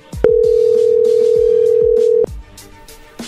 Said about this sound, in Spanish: Bueno, pues ahí se está marcando, no haga ruido, ¿ok?